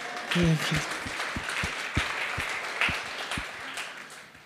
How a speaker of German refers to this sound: Und was wir heute, ah ja, ihr dürft klatschen, Jesus.